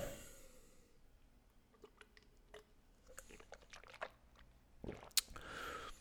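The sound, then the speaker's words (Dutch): Someone sips and swallows plain water: quiet wet mouth clicks and soft gulps scattered over a few seconds, with a louder slurp or splash near the end and no talking. “Ah, even een slokje water.”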